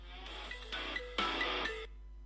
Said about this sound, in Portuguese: Já toquei duas vezes, não sei se deixei vocês ver, eh, virem o toque de telemóvel, mas o meu toque de telemóvel é muito fixe. O meu toque de telemóvel é assim, ouve.